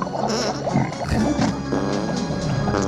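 Dense, continuous pig-like grunting and oinking, loud, with overlapping snorts and squeals filling the whole stretch without pause.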